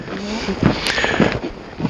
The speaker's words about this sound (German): Es ist ganz still. Man hört im Hintergrund so ein bisschen die Autobahn rauschen.